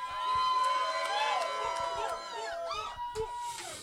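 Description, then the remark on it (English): A crowd cheers and shouts after the host tells them to make some noise, many voices whooping and yelling over one another in a loud, steady roar that lasts a few seconds with rising and falling pitched cries. “All right, rock the crowd. Mm, episode 3. Y'all like y'all like what's going on. Make some noise.”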